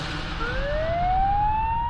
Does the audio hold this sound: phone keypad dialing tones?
no